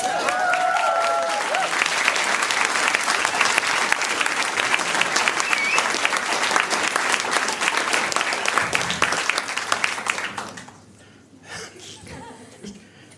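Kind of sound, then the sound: crowd, audience applause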